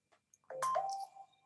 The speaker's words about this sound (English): oh God, sorry. That's, that's okay. Um, There's normally a phone goes off in every podcast, so that's fine.